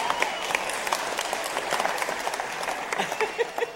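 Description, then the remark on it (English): A crowd of people applauding, dense overlapping claps forming a steady, sustained roar of applause that stays fairly loud throughout, with a few sharper individual claps standing out near the end. “Brings down the house.”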